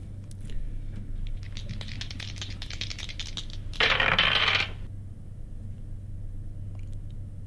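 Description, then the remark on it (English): Several dice rattle and clatter across a hard tabletop in quick overlapping clicks as players roll for initiative, followed by a brief louder burst of tumbling, over a steady low hum. “And with that, I'll have everyone roll initiative.”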